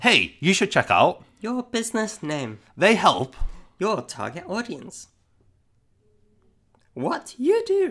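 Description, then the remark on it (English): A person imitates a robot, speaking in a flat, mechanical robot-like voice and delivering several short phrases, then pauses in near silence before resuming briefly. “Oh, like a robotic voice.”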